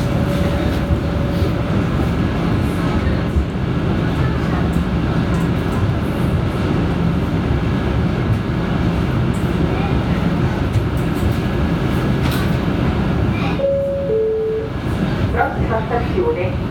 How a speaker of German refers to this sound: Ja, eine Achterbahn hochfährt, das ist ja lustig, Ich bin da schräg hochgefahren. Die gleiche Bauweise. Ja, eine Achterbahn, ne?